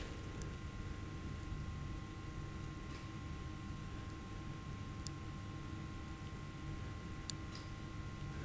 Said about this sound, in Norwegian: Så er jo byen stille, men du hører lyden av et kjøleanlegg på en butikk rett foran meg.